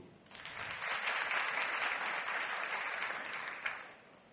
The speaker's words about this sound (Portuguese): Tá ficando mais fraca as palmas, tá? Ficou cansou? Gente, é, é, é aumentando o volume até o último. Não vai enfraquecendo não, vamos embora.